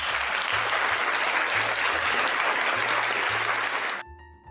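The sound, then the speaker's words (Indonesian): Sustained, dense applause fills about four seconds at steady loudness, a crowd of many hands clapping together, then cuts off abruptly, leaving a faint tonal hum. “tepuk iya. tangan dulu keren keren”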